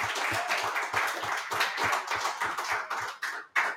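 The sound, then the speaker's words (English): A crowd claps to congratulate an athlete who will be continuing on in Richmond, with some distinct sharp hand claps in a regular rhythm standing out from the broader wash of applause, which fades briefly near the end before a final burst. “Can we clap it up as he will be continuing on in Richmond?”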